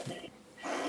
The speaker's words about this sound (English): That was my dog, yeah. So, uh, what kind of dog do you have? What kind of dogs? Yeah. Uh, those are Belgian Malinois.